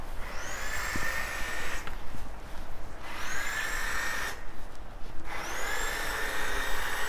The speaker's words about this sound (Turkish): Gördüğünüz gibi kadın e, eline almış elektrikli testereyi ve ağaçlarını kesiyor.